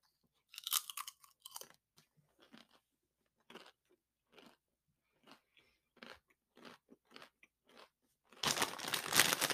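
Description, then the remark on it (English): Crunching of the last tortilla chip of a tasting being bitten and chewed, with sharp, irregular crunches spaced across several seconds, followed by a louder burst of crackly, rustling noise at the end. “Last chip.”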